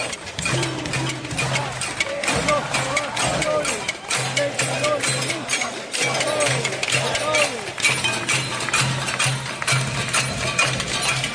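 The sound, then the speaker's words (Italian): Protesters bang pots and pans at night in a dense, continuous metallic clatter while marching across the city to Congress, a protest lasting until about 3 a.m., with a crowd of voices shouting underneath and a steady low hum throughout. “Ecco, sentiamo un istante soltanto di queste casserolasse, che questo è successo a luna di notte.”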